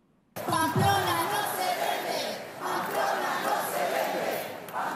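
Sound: protest crowd chanting slogans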